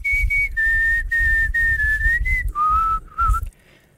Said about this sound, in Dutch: Maar fluiten met je mond bedoel je?